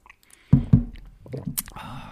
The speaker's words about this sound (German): Aber ah, ich muss kurz einen Schluck trinken.